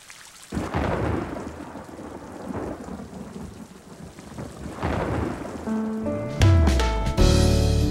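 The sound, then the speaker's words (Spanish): Rain falls steadily, with deep rumbles of thunder rolling underneath; near the end, sustained musical tones rise over the downpour. “lluvia, lenta y delgada, como un susurro. Late gota por gota, como la sangre late en mi pulso.”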